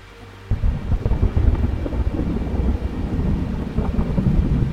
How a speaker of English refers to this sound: A crash of lightning illuminated the drowned valley ahead.